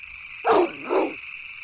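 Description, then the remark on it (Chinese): A large, tall dog in a compound courtyard at night lets out two deep, fierce barks in quick succession, loud and gruff, over a steady high-pitched background whine with no one talking. “这个时候，大院里突然传来了狗叫，那声音显得很粗，一听就知道是一条高大的狗。”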